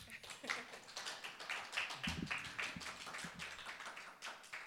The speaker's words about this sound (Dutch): klein applaus.